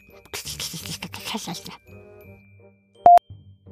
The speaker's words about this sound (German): Beim Öffnen der Tür begrüßt sie das freundliche Klingeln des kleinen Glöckchen.